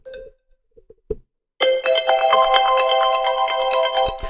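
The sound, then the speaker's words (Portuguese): A few faint taps and clicks, then a loud, bright, old-fashioned Android phone ringtone starts abruptly and keeps playing a busy melodic tune with steady beats, continuous. “E agora, outro que também para mim é de alguém que ficou preso, este sim, é de alguém que ficou preso em Android, plus um toque de uma avó.”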